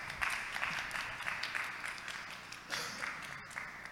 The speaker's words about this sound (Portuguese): Palmas.